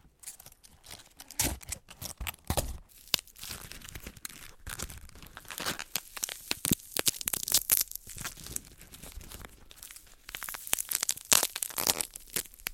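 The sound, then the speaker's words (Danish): A cabbage head is torn and crushed, giving dense, irregular crackling, crunching and ripping that runs almost continuously with sharp leafy snaps and no talking. “Jeg kan godt lide, at man kan høre øh, man kan høre en form for knitren, og man kan, jeg synes, man kan sådan på en eller anden måde mærke materialet i lyden.”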